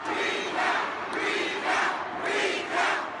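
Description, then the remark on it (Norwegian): A large crowd of Sanders supporters at a Nevada Democratic Party meeting chants "recount" in protest, loud, repeated shouts rising and falling in a steady rhythm, roughly once every second, over a constant roar of voices. “Recount, kontrolltelling, skrek Sanders-fraksjonen, som mente at de ble frarøvet en seier.”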